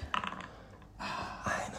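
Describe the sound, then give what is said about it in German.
Dice rattle briefly in a cup during a round of a dice game, followed by a couple of clattering bursts as they tumble across a hard surface, fairly quiet with no talking. “gut gewürfelt. Schön aus dem Handgelenk.”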